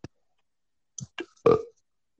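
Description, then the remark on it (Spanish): A short, throaty burp rises out of a few brief, scrappy bursts and trails off quickly; it's fairly loud, preceded by a faint click in otherwise quiet surroundings. “Y, y ya eructabas, ¿no? Como tú, como tú.”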